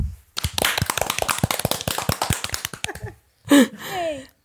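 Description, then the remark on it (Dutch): A small group of women bursts into brisk, dense applause for themselves for a couple of seconds, the clapping fading out, followed by a short pair of high, sliding vocal whoops. “Applaus voor onszelf.”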